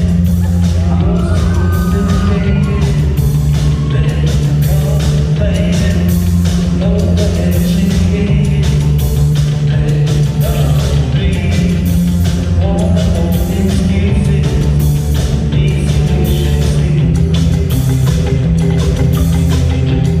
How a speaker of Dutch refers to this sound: Ze speelden de eerste show sinds twee jaar in de maand en daar speelden ze ….